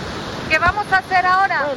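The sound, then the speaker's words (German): Steady rushing of the Rio Pato, a river in the Caguán region of Caquetá department in southeastern Colombia, where the Andes meet the Amazon, fills the background, with voices briefly audible over it. “Der Rio Pato ist einer von Dutzenden von Wasserläufen im Südosten Kolumbiens, dort, wo die Anden auf den Amazonas treffen.”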